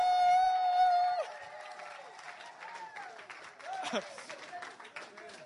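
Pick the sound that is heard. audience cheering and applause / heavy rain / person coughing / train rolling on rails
audience cheering and applause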